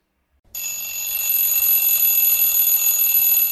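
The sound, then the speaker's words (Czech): An alarm clock starts abruptly and rings loudly and continuously, a bright, shrill, steady tone that keeps going without a break. No one speaks. “Voku zvoní budík.”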